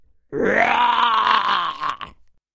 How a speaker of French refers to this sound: Je voudrais voir le film avec les dinosaures. Bonne idée, Choupi. J'adore ce film, Doudou. Tu entends le tyrannosaure comme il hurle fort.